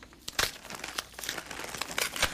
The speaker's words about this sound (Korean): 얼떨결에 받아든 선물을 어루만지다가 조심스레 포장지를 벗겨냈습니다.